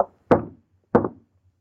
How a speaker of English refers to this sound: Lady, will you please stop knocking on those lifeboats? All right, I will. I don't wish to be rude, but it's just against the rules.